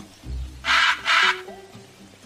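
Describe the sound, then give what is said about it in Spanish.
A parrot in a jungle lets out two loud, harsh squawks in quick succession, raspy, over a low, murmuring background rumble. “Al abrir el pico y decir semejante burrada, llamó la atención de un cazador de loros que por allí pasaba.”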